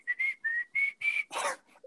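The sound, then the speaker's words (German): A short whistled intro jingle of five steady, clear notes in a quick rhythm, fairly loud, ending in a brief burst of noisy breath or laughter. “so ein Intro wie, wie, äh, so ein, das. wie so ein Gepfeife da”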